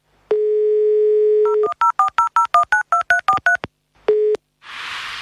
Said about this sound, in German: Ah, hey, ich habe doch noch seine Handynummer aus dem Ersti-Seminar. Ich ruf mal eben an.